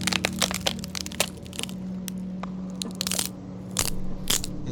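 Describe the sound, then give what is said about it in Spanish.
Sharp, crunching cracks of a boy's bones snapping and breaking, coming in rapid irregular bursts, fairly loud over a low, steady hum. “Y cuando escuchó que abrió la puerta, solamente escucharon ruidos del vato, del, del morro, pues. Y cómo se rompían sus huesos, güey.”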